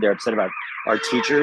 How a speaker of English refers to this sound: Uh, sorry about the siren in the background. I'm outside of my backyard, yeah. but but it's fitting, right?